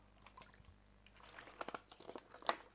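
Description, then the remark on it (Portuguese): Someone takes a drink of water, with soft wet gulps and small mouth clicks and no talking. “Deixa eu aproveitar, Rodolfo, beber uma aguinha”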